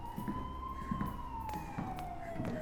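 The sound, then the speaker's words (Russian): An ambulance siren wails steadily and loudly, its tone sliding slowly downward as the vehicle passes, over a rumbling background of traffic noise. “Перепуганные врачи понимают, что ты не шутишь, и переносят его в машину скорой помощи.”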